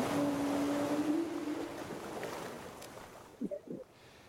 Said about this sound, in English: Let's find some whales. Oh yeah, do do a yeah, do some whale noises, and we can imagine that we are on the date ourselves.